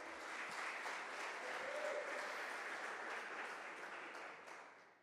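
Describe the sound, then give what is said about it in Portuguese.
An audience breaks into sustained applause for the Lord Jesus Christ, a dense wash of many hands clapping at steady loudness for about four seconds before gradually tapering off, with no voices standing out. “E se você crê nisso, aplauda ao Senhor Jesus Cristo.”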